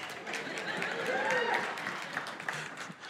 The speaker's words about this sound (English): the rest of you aren't clapping because you're on that thing.